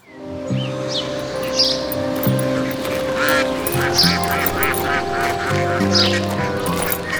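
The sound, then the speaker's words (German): Several ducks at a pond quack repeatedly in lively, overlapping bursts, over a steady humming musical background. “als sie an einem Weiher mit wakenden Enten vorbeischlenderten”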